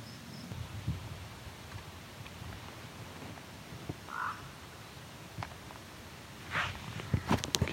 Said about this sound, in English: That was a raven, and there seems to be an egret on the move too. Yeah, so there's a raven in a tree just around the corner from me.